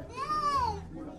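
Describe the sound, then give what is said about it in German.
A child's high, drawn-out cry or shout rises and falls in pitch, with faint background voices and noise beneath it, moderately loud, in a drought-hit area. “Erst als wir in Richtung Kindergeschrei gehen, wird es ernst mit der Dürre.”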